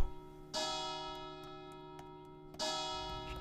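A large church bell tolls twice, about two seconds apart, each strike ringing out with a long, shimmering hum that carries between the strokes. No voices.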